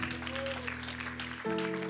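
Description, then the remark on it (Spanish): An audience claps for the Lord in a dense, steady wash of applause during a sermon, with sustained musical tones held underneath that shift to a higher chord near the end. “Los que esperan en Jehová, del un aplauso al Señor.”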